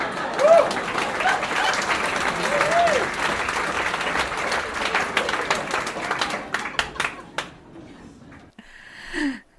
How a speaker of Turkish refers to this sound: Ne dersiniz? Burası bir alkış hak ediyor mu?